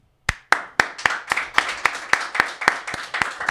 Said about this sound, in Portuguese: Uma salva de palmas.